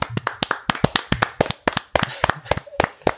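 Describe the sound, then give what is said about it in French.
A small group claps for a few seconds: sharp hand claps in a quick, slightly uneven rhythm, brief applause from a handful of people congratulating Tom on becoming a father. “Allez les gars, 3, 2, 1, petit tonnerre d'applaudissements”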